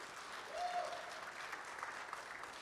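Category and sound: crowd, audience applauding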